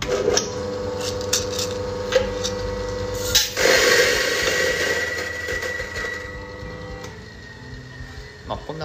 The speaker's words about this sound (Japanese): 最近だとあのフィルターコーヒー用で主に使われている EK43 っていうグラインダーで豆をひいてエスプレッソ抽出をするっていうお店もありますその場合にどういう音がするかっていうと